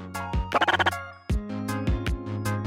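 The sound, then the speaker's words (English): A frog's electronic croak call: a buzzy, harmonic tone breaking into a quick rippling burst of pulses, then repeated warbling croaks with falling sweeps, loud with no talking. “His call sounds like a rippling electronic croak.”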